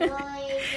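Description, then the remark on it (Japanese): A child's voice reading aloud in the background during a school lesson held by tablet, a brief, steady stretch of slightly muffled speech at moderate volume. “あの今ですね学校が休校ではなくて登校自粛でタブレットで授業をしているんですねそれで先週は邪魔にならないようにと収録放送にしたんですけど今日はやってみようと思って やってみたらまさかのね朗読が始まりましたね子供のね”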